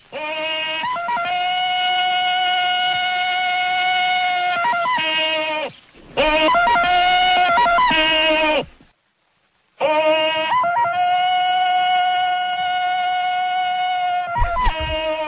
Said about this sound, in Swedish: Det ska vara en hund, eh, en operasångerska, en hyena, en kamel och en violin.